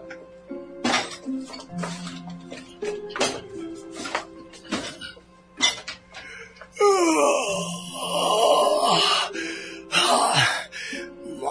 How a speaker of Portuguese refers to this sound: E essa minha barriga que não para de roncar!